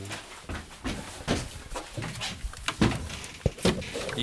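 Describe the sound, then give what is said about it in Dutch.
A door is pushed shut, ending in a sharp latch click, amid scattered shuffling, rustling and soft thumps, with no one speaking. “Deur weer even dicht.”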